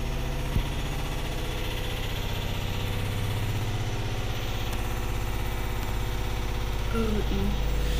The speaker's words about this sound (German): Natürlich jetzt fängt die Waschmaschine natürlich wieder an.